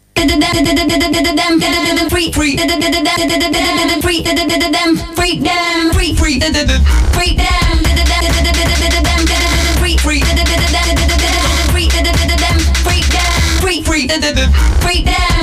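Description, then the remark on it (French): A hip-hop track plays loudly and continuously, with a dense, busy instrumental whose deep, booming bass line kicks in partway through and carries on to the end. “Ok, on va se passer une petite pause musicale, comme ça je vais pouvoir tousser fort.”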